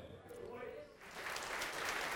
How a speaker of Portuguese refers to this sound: Vamos aplaudir ao Senhor, vamos aplaudir mais então.